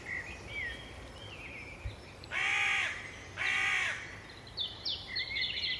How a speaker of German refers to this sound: Die Ruhe die Natur, die Vögel in der Luft